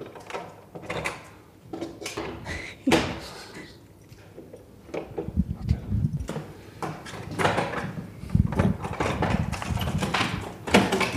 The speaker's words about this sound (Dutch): Hij gaat open. Oké, dus we komen nu binnen door de deur met de vijf sloten.